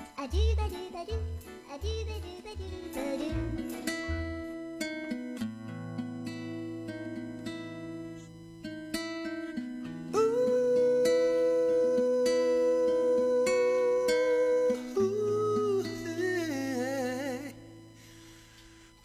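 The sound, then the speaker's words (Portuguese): A recorded Portuguese-language worship song plays at a steady, fairly loud level: punchy low chords open it, then sustained instrumental tones carry on, with a wavering sung melody rising near the end. “Então eu vou botar aqui uma musiquinha que eu acho que o povo vai gostar.”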